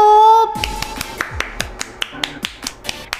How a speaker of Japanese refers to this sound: 寂しいよ拍手も一人だもん